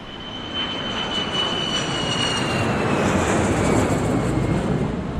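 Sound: airplane engine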